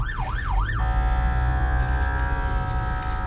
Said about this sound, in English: And as I'm talking right now, there's an ambulance behind me, so let's pray for whoever they're going after. But they're about to go by me. If you can hear that, you get over.